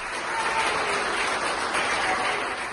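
Steady, dense applause from a group of people clapping together, a continuous crackle of many hands that holds an even loudness throughout, with no voices heard over it.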